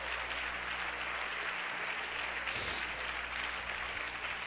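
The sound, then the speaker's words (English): An audience claps their hands in praise to the Lord in a steady, dense wash of applause, many overlapping claps blending into a continuous, fairly loud roar with no voices standing out. “Somebody clap your hands again to the Lord and praise Him.”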